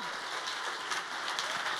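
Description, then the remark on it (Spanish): An audience applauds in a dense, steady wash of clapping that holds at an even level for about two seconds, with no voices over it. “Si le vas a dar el aplauso, dáselo.”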